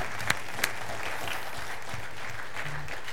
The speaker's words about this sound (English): Yeah, let's clap for that. Yeah, thank you.